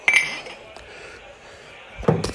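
Beer bottles clink together in a toast: a bright, ringing clink at the start, then a second, duller knock about two seconds later, both fairly loud.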